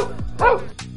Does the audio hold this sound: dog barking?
yes